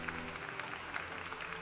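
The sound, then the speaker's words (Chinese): Warm applause fills a meeting hall, many hands clapping in a dense, steady patter that holds an even loudness for the whole short stretch, with no voices over it. “会场响起热烈的掌声。”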